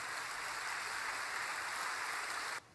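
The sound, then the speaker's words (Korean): A crowd claps in a steady, dense burst of applause offered to God during a worship service, holding at an even level for a couple of seconds, then cutting off abruptly. No one speaks. “우리 하나님께 큰 박수 올려 돌리십시다.”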